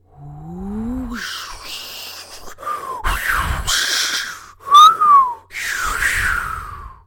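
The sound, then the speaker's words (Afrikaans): Wild storm wind howls and whistles, its pitch sliding up and down between gusty, hissing bursts, loud and unbroken for about seven seconds. “Skielik, sommer net so, hoor die mense iets soos 'n woeste, vreeslike stormwind.”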